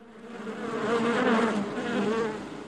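A fly buzzes steadily, its drone rising and falling in pitch and loudness as it moves around, peaking mid-way with no voices present.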